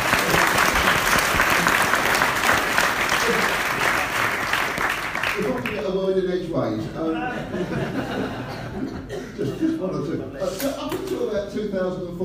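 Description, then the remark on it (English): An audience claps loudly and steadily for about five seconds, a dense patter of many hands, which then fades as laughter and a man's voice take over. “Um, so uh, let's go a round of applause for that.”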